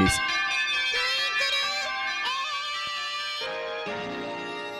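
A shimmering, bell-like crystal carillon, Shibi Moon's, rings out a sequence of sustained tones, each note blending into the next with a bright, crystalline resonance at a steady, moderate loudness.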